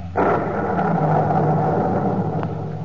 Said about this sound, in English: the wisdom of the universe beyond the time of man, look to the lightning and the thunder.